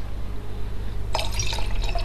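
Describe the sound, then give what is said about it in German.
After a second of quiet hum, a wine spritzer is poured into a glass in front of a microphone with a bright, splashing, gurgling fizz that continues steadily to the end. “Dann schenke ich hier extra vor dem Mikrofon nochmal ein.”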